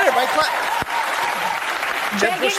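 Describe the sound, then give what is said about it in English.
Steady applause from a crowd, a dense, even patter of many hands clapping throughout, with a few voices calling out over it. “Please clap.”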